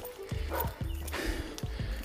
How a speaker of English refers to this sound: Ooh, dogs are chiming in on my behalf.